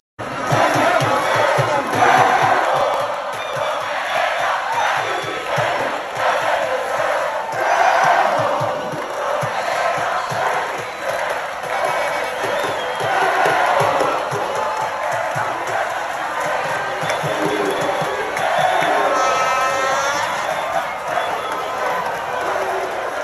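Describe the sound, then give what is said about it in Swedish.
A large outdoor crowd in Rabat, Morocco's capital, cheers and shouts continuously at a street celebration, a dense roar of many voices with chanting and whoops rising and falling throughout, loud. “alltså det är ju helt otroligt att se bilderna från firandet från eh, Rabat, i, alltså Marockos huvudstad, till folksamlingar i Spanien, Frankrike, England.”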